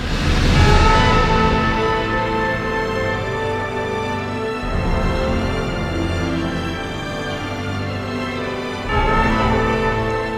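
A four-note melodic motif in a film score: sustained, full orchestral music plays steadily and fairly loud, swelling again near the end, with no voices.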